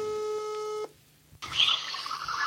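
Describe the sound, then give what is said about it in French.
A steady electronic telephone line tone, as a news programme calls its special correspondent in Saint Petersburg, hums for under a second, cuts to a short near-silence, then gives way to loud, hissy line static with no voices. “Et pour y répondre, on appelle évidemment notre envoyé spécial”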